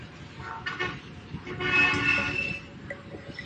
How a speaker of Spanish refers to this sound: El claxon del coche que acababa de sonar en la calle se repetiría tres veces más.